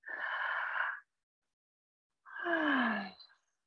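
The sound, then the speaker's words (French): A single deep breath: a long, airy inhale lasting about a second, a brief pause, then a fuller exhale that ends in a slight voiced sigh. “je vous invite à prendre une grande respiration.”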